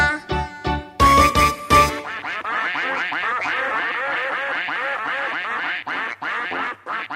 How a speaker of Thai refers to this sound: กากากาเป็ดอาบน้ำในคู ตาก็จ้องแลดู เพราะในคูมีหอยปูปลา